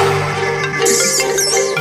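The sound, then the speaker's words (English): A loud electronic phone ringtone plays, a bright warbling melody with chirpy high tones over a steady sustained hum, continuing for a couple of seconds with no voices. “Yo, DJ, answer your phone.”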